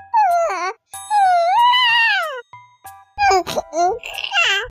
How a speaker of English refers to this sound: Yeah, so newborns, the sound they make is called cooing or C O O cool a coo sounds like this.